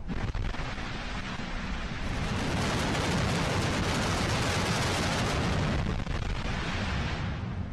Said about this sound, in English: a test firing of the rocket's 27 engines on the pad at the Kennedy Space Center yesterday